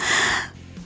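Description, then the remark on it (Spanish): A single deep, airy inhalation drawn in sharply for about half a second, followed by near-silence as the breath is held. “Mantienes la respiración y no toses.”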